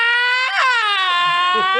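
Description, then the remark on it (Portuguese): A voice imitates a child's loud, sustained wail, the pitch jumping and sliding in steps like a Formula 1 race car shifting gears, then trailing off. “Tem um choro de criança carro Fórmula 1, que a criança vai passando marcha.”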